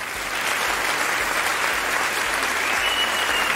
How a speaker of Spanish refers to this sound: Aplausos ah, aquí.